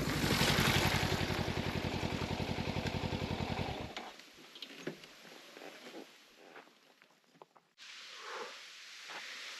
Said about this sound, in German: Dann geht es einen Fußpfad durch hohes Gras in den Bambuswald hinein. Mit dem Motorrad kann ich jetzt nur noch Schrittgeschwindigkeit fahren.